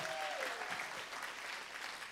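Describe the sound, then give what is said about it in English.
An audience in a church claps in steady, dense applause for the people watching the live stream online, a broad wash of overlapping hand claps that stays fairly even throughout, with a brief faint tone sliding downward near the start. “Y'all give a hand clap to those people that are watching in online.”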